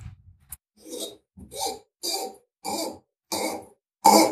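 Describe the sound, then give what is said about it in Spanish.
A dry cork squeaks and creaks as it is worked out of a bottle of Montabellón wine, about six short rasping bursts in a steady rhythm, with no talking. “entonces vamos a descorchar el Montabellón”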